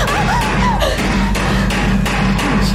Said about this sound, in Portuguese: Você tá ouvindo o som desse martelo? A próxima vai na sua cabeça.